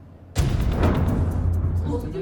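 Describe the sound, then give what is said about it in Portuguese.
Shelling outside in Luhansk, eastern Ukraine, as Russian forces attack the city: a sudden heavy blast bursts in after a brief quiet, followed by a loud, sustained rumbling roar with muffled voices faintly underneath. “Assustadas na porta de casa, moradoras de Luhansk, no leste da Ucrânia, ouvem os bombardeios do lado de fora.”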